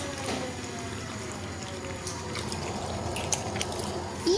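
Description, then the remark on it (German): Continuous wet lapping and splashing of a dog drinking from a bowl of water, steady, with small drips and a few sharper splashes near the end. “Oh mein Gott, er hat fast eine Schüssel Wasser gerade getrunken. Wie durstig kann ein Hund sein?”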